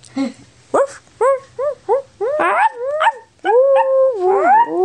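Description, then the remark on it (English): Farm dogs howl and yelp in answer to a passing train, in a rising, wavering series of pitched cries, short bursts at first, then longer sliding howls that overlap as a second dog joins in. “A farm dog answered the train, and then a second dog joined in.”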